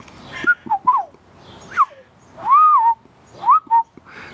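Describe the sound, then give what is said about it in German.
A person whistles an imitation of a golden oriole's fluting call, several short melodic phrases with swooping notes, clear with pauses between, no talking. “Also ist ja ein ganz besonderer Ton, den die Pyrole machen. Der macht immer so.”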